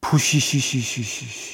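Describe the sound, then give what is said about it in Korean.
A voice imitates air hissing out, meant as the sound of one's energy draining away, a rapid series of about six short pulsed syllables over a steady high hiss, moderately loud, fading slightly toward the end. “혹시 제 기운 빠지는 소리 들리시나요?”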